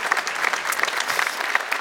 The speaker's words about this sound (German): Dafür aber auf jeden Fall mal einen Applaus.